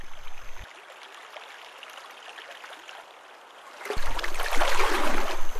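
Moving river water splashes and rushes steadily as an otter swims along the river, using its long, thick tail to push through the water; the sound grows noticeably louder and fuller partway through. No voices.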